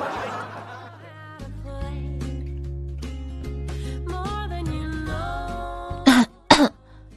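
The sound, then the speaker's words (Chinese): Steady background music with sustained tones plays for several seconds, then two loud, sharp coughs burst out in quick succession near the end. “老公，我有点咳嗽啊，你说我要不要隔离呀？”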